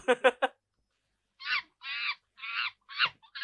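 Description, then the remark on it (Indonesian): A monkey sound effect from an app: three quick chattering yelps, a short pause, then a run of five or six harsh, screechy calls in close succession, loud with no talking. “Suara monyet masih ada aja di aplikasi baru.”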